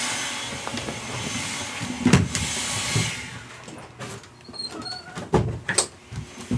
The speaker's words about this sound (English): I shut my office door, so everything's fine now.